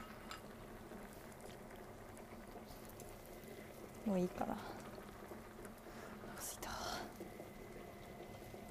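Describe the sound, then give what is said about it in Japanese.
A hot pot of chicken and vegetables simmers steadily with soft, continuous bubbling, recorded with earphones, while a woman speaks briefly and quietly over it. “で今日もイヤホンで撮ってますグツグツ音聞こえるかな”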